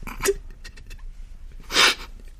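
A person crying quietly: two sharp, breathy sniffling sobs about a second and a half apart, with soft shaky breathing in between and no talking.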